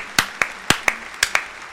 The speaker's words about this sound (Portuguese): Palmas para você, cara. Palmas. Palmas pra você, cara.